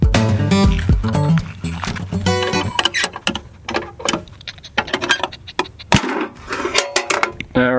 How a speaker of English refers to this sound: right, and that sound you heard was the ammo can, uh, and it's the cache that we found. you know, ammo cans are the best, absolutely the best containers because uh, they seal,